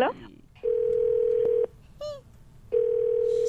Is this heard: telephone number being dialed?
yes